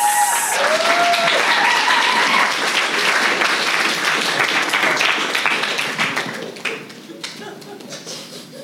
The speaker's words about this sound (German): Kleiner Applaus.